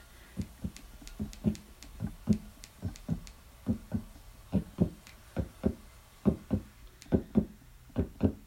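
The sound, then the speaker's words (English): A steady heartbeat thumps in clear lub-dub pairs, about one pair every second, muffled with a low boomy tone, with no voices or other sounds. “So what you're hearing right now is a heartbeat.”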